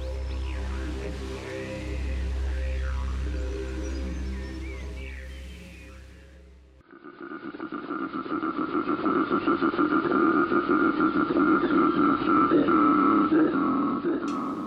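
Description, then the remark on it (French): An Australian koala bellows: a deep, droning grunt gives way after a short dip to a loud, rapid, rasping snore-like pulsing that continues steadily to the end. “Eh bien, il s'agit du nounours australien, c'est-à-dire le koala.”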